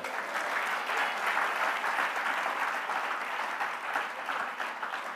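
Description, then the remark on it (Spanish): An audience applauds the Lord steadily for about five seconds, a dense wash of many hands clapping at even loudness without pause, with no voices standing out. “¿Cuántos da un aplauso al Señor?”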